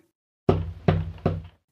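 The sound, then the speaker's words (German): Three firm knocks on a wooden back door, evenly spaced about a second apart, each with a short resonant ring. They sound fairly loud against silence, with no voices. “Dann folgt, wie gesagt, dieses dreimal Klopfen an der Hintertür.”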